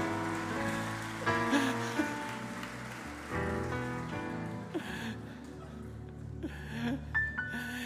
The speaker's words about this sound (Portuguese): Aí, uma salva de palmas para esses caras aí, ó.